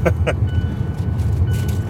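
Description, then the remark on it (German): A couple of quick, crisp crunches of someone in the back seat munching Twist Honey Barbecue snack chips, heard near the start over a steady low rumble of a new car's interior while driving. “Was knusperst du da hinten?”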